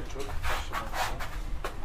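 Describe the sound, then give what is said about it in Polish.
A dog named Max barks in a few short, sharp bursts spaced unevenly, over a low steady background rumble, at a house in Edinburgh in February 2022. “Aha, to mój pies będzie.”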